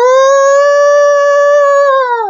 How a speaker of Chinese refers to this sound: 冲着月亮正他妈嚎呢，就这一嚎啊，村长打老远就听见了，一看房顶这仨。